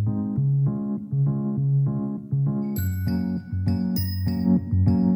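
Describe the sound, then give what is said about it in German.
Electric piano notes play a steady repeating pattern in a mellow middle register, at a medium-loud level, joined halfway through by bright, ringing glockenspiel tones above. “Machen Sie dasselbe für das E-Piano.”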